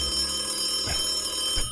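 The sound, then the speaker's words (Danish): A telephone rings steadily with a bright, trilling electronic tone, moderately loud, with a couple of soft thumps underneath and no one speaking. “Hvem ringer dog på det her ukristelige tidspunkt?”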